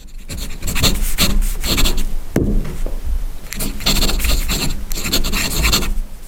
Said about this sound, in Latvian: Bišķīt izklausās, ka kāds kaut ko raksta. Tā arī izklausās, jā, un tā tas arī ir. Tā skan pildspalvu uz papīra.